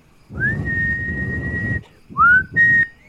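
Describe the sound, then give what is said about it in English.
A distant whistle: a long, steady whistled note holds for over a second, then two short upward-sliding whistles follow, with a low rumbling background underneath. “a distant whistle.”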